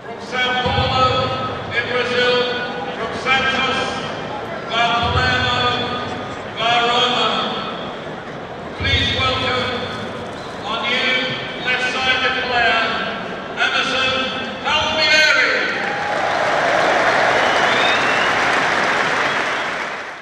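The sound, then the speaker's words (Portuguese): A big crowd at Stamford Bridge, England, during a player presentation at half-time of a 3-0 home defeat to Bournemouth: an echoing voice booms over the loudspeakers in bursts, then the crowd breaks into loud, sustained cheering and applause for the last few seconds. “Mas vamos dar um sobe som aqui para essa apresentação dele lá em Stamford Bridge, para a gente sentir um pouco o clima num estádio aqui da Inglaterra.”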